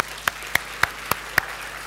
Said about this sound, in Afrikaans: Hoekom gee ons hande klap? Want hy's goed. Gee hande klap vir die Here toe.